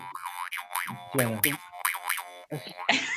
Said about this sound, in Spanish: Música australiana. creer que, sí, es que yo creen que así suenan las resorteras, pero le, aclaro a nuestros amigos, escucha y a los paquitos, que eso es un trompe, no es nada más peligroso.